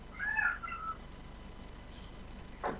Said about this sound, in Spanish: Porque si no, el gato se me mete en el oído a través del micrófono.